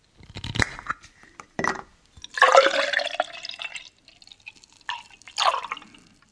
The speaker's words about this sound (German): öffnete den Kühlschrank, um sich ein großes Glas Vollmilch einzuschenken.